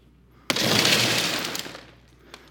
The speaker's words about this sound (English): This glass is super temperamental when it breaks, it just goes like scary berserk. That's the reason why we use tempered glass, glass that is under control. What does it do? Well, let's see.